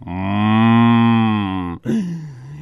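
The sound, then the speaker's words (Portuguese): A cow on a small farm gives a long, loud, steady moo lasting nearly two seconds, followed by a shorter, lower moo that trails off. Clear, with no talking. “quando ele desceu na chácara, chegou lá embaixo, viu um gato, um cachorro, tinha um porco também, tinha um burro, tinha uma vaca.”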